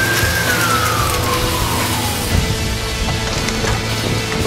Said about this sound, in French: il y a de la grosse circulation.